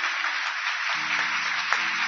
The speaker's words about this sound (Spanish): Aplausos, por favor.